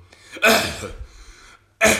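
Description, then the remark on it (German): A voice imitates a man who sat down beside them coughing in their direction with an open mouth: two loud, breathy, explosive coughs, the first trailing into a rasping hum, the second about a second later. “wir sitzen auf Platz 1 und 2 da kommt so ein Typ, ist das alles frei und er setzt sich so neben uns und fängt an zu husten so.”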